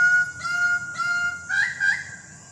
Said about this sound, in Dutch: Nee, dit is de kraagparadijsvogel.